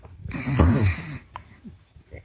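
One loud, rough nasal breath, close to the microphone and almost snore-like, lasting about a second before fading into quiet shuffling and faint background noise.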